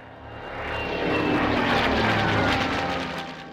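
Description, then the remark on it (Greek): Wartime bomber airplane engines drone overhead during a bombardment, above a herd of animals, in a steady, broad roar that swells slightly and then eases off, with a faint propeller-like hum running through it. No one speaks. “Καμιά φορά το βουητό των αεροπλάνων πάνω από το κεφάλι μας σκορπίζε μεγάλο εκνευρισμό στο κοπάδι.”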